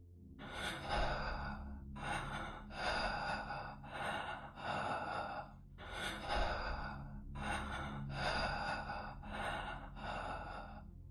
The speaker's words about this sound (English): She was right next to me, breathing in my ear. She didn't say anything at all, just breathed.